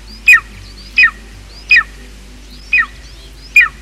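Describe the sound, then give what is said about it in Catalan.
An adult golden eagle calls five times, each a sharp, high, downward-slurring yelp, repeated at a steady pace with brief pauses, clear against a quiet background. “Aquest és el crit de l'àguila adulta.”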